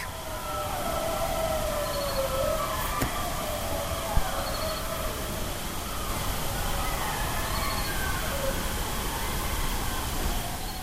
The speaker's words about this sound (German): Bis dann später irgendwann mal ein Dingo etwas näher kam und dort sein trauriges Geheul von sich gab aber bis ich dann meinen Rekorder soweit hatte, war der auch schon fast wieder fertig